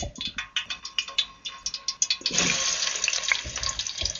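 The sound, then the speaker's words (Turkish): Hot frying oil that is just starting to heat crackles with rapid, uneven pops, then bursts into a louder, dense sizzle about halfway through as a piece of potato is dropped in to test the oil. No one talking. “Evet şu anda yağın kızmaya başlama seslerini duyuyorsunuz. Bir tane patates atıp deniyoruz.”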